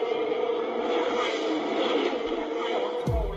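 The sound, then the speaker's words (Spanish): The engine of Max Verstappen's Formula One single-seater at the Mexico City Grand Prix roars steadily for a few seconds, loud, dense and buzzing with a sustained high whine, then a sudden low thump cuts in at the very end. “Súbele, productora, así se escucha el auto, el monoplaza de Max Verstappen aquí en el Gran Premio de la Ciudad de México.”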